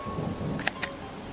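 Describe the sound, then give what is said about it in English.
Heavy rain pours steadily, a dense hiss over a low, rolling rumble, broken by two sharp, close clicks in quick succession near the end. “He drew his gun and disappeared into the heavy rain.”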